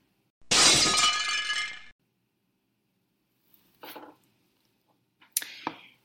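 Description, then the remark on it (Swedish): A loud crash of glass shattering, with bright ringing shards lasting over a second, followed by two smaller tinkling bursts of falling glass pieces after brief pauses. No talking. “Var det det där med glastaken? ja, just det. De skulle krossas.”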